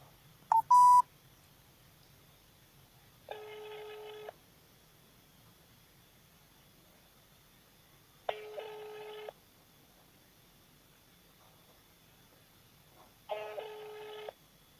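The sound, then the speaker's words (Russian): A quick burst of phone dialing tones, placing a call to Sergei Vladimirovich Larikin, chairman of the city Duma, is followed by three evenly spaced ringback tones, each about a second long with several seconds of faint line hiss between them. “Так, звоним.”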